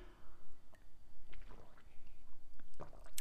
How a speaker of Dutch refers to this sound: Ik neem ondertussen even een slokje van mijn thee.